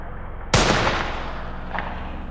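A single loud gunshot, a bullet striking a creature that falls lifeless, cracks out of a low background hum, its sharp blast decaying over about a second into a lingering rumble, with no voices present.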